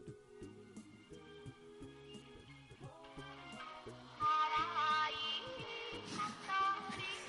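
A Japanese pop song plays, with a steady bass line and melodic layers in an even rhythm; it grows fuller and brighter partway through, as higher instruments join in. It is the original song whose tune garbage collection trucks play.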